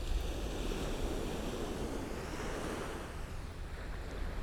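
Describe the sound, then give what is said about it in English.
Steady roar of sea waves washing onto a beach, a dense continuous rush of surf with some wind buffeting the microphone and no voices. “blue sky and then the horizon with the glistening sea where the light is shining is just so bright white bright bright and the sea is a sort of mm, dull blue color”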